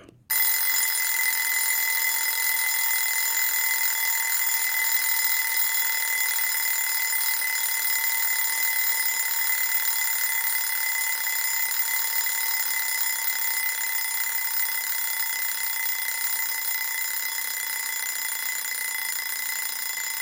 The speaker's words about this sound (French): Ce réveil que l'on vient d'écouter est particulièrement beau, avec ce décélérando si progressif. Et à la fois agressif